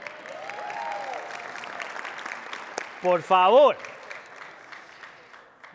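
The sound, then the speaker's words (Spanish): An audience applauds steadily for a few seconds, a dense crackle of many hands clapping, then a man's voice briefly speaks over the fading applause. “Eh, hace un segundo todos ustedes estaban aplaudiendo por México, déjenme por lo menos elevar a Colombia.”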